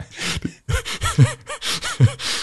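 A person sneezes, with a run of sharp, breathy bursts and gasping intakes repeating over a couple of seconds, loud and with no talking.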